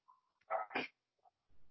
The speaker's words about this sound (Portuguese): Olha os cachorros latindo. Pelo menos não é o galo, né, gente?